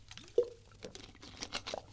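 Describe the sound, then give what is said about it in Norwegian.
A quiet sip of water from a bottle, with a short slurp, small liquid squishes and a few soft gulping sounds spread over a couple of seconds, no talking. “Vi har jo hver vår flaske her, så ja, kanskje vi skal ta en sup, da.”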